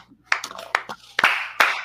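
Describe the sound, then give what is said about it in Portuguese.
Someone claps their hands about seven or eight times in an uneven rhythm, each clap a sharp, bright smack. The claps are fairly loud, and no one speaks. “Eu vou aplaudir porque foi muito além do, do meu, do meu intelecto, cara.”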